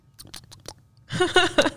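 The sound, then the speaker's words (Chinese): Wet, smacking chewing noises: a run of quick crisp clicks that grows into a louder, denser stretch of open-mouthed mastication near the end, with no speech. “得奖的是 咀嚼的声音让人很崩溃。”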